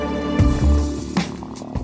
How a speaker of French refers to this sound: Vite, il force un peu à l'aide d'un pied de biche. Pendant 5 minutes, Et enfin, la porte s'ouvre.